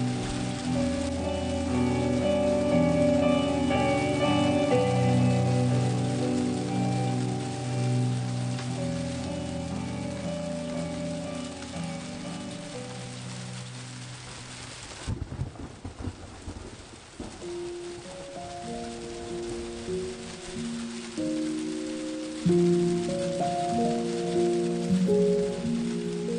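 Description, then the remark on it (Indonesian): Heavy rain pours down at 4:15 in the afternoon in a steady, dense hiss, with low rumbling and sustained deep tones beneath it that briefly drop away and return midway. No one speaks. “Sore Pukul 16.15 Hujan Deras sekali”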